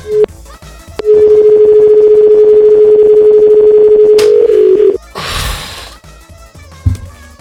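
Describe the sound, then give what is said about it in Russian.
A telephone line tone as someone dials a number: a short beep, then a steady, loud single tone holding for about four seconds before cutting off, followed by a burst of rustling clatter and a soft knock. “Я не могу одновременно говорить и набирать”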